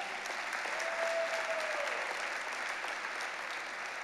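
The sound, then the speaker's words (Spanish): An audience claps together for the Lord in a steady, dense wash of applause that holds at an even level throughout, with a faint tone briefly rising above it; no one speaks. “Entonces vamos a Dele un aplauso al Señor si se lo va a dar.”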